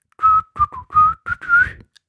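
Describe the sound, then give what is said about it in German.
A person whistles a short, catchy melodic phrase of about six notes, clear, imitating the whistled opening of a pop song, with no talking or other sounds around it. “Ich habe es ja eben schon gesagt, da ist wieder so ein Gepfeife am Anfang. Ich wollte es eigentlich nachmachen, aber ich glaube, ich krieg's nicht hin.”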